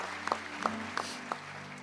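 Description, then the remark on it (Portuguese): An audience applauds, a dense wash of clapping with a few sharper claps standing out at a steady rhythm, over a low hum. “Celebra, Senhor, com as suas palmas.”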